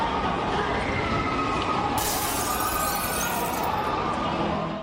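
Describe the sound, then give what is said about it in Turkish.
The glass facade of an airport terminal in Aden bursts under violent storm wind and heavy rain with a loud crash. A sustained shower of falling, tinkling shards follows over a constant roar of wind and commotion as people flee in panic. “Yolcular terminalde uçaklarının kalkış saatini beklerken binanın cam cephesi rüzgarın şiddetiyle patladı.”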